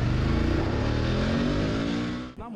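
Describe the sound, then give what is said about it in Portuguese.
A motorcycle engine roars as it accelerates hard, its pitch climbing steadily, as two robbers flee at high speed on a stolen motorcycle in the south zone of São Paulo. Loud throughout, the sound cuts off abruptly near the end. “Os assaltantes fogem em alta velocidade.”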